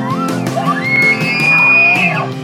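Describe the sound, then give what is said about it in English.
An elk bugle out west: a low grunt rising into a long, high, piercing whistle that holds steady for about a second before breaking downward, loud, with no talking. “When I came out west and heard my first bugle, I was hooked.”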